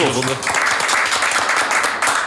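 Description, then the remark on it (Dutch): A burst of applause for a colleague named talent of the year in their field: steady, dense clapping from a group that holds at an even loudness for about two seconds, with a brief voice audible at the very start. “Nou, nou applaus.”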